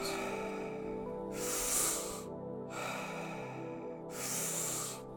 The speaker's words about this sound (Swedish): Och nu sista. Andas in, andas ut och håll.